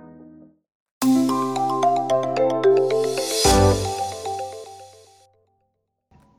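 A short electronic jingle built from the outgoing dialing tone of アイブリー (IVRy): steady tonal beeps and bright melodic notes with a brief swelling hiss midway, fading out after a few seconds with no talking.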